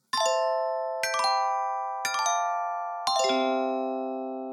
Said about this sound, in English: Before what? The chime? The chime.